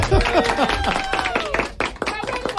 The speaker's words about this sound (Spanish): Oiga ese ah, aplauso del auditorio. No, el aplauso del auditorio. El aplauso del auditorio en Blue Radio.